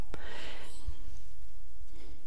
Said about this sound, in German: Und auch das gehört dazu. Hunde, die im Hintergrund Geräusche machen. Ja. Und ganz klar signalisieren, dass sie überhaupt keinen Bock auf diese Situation gerade hier haben, aber da einfach mal durch müssen.